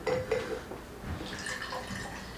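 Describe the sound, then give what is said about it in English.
A little drink is poured into a bride squad glass, with liquid trickling and dripping in a short burst, plus a faint clink of glass, quiet and without talking. “Just pour a little bit.”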